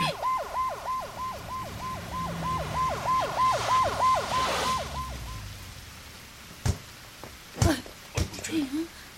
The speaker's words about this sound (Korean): 아, 요것은 또 무슨 소리여? 음메 우리 집으로는 백차 소리 같은디라.